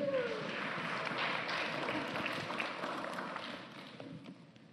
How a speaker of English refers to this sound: Would you give the guys a hand clap? Thank you.